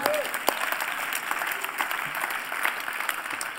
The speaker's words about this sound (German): ja, da darf man auch mal klatschen, finde ich auch.